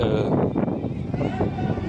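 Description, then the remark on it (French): Wind buffets the microphone in a continuous, loud low rumble that swells and dips throughout, with indistinct voices faintly beneath it, on a fairly windy day at 8 o'clock. “Il est 8h, il y a pas mal de vent, je sais pas si ça s'entend.”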